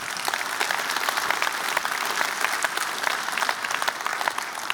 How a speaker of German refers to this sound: Ist das nicht wunderbar? Gib mal dem Herrn einen Applaus.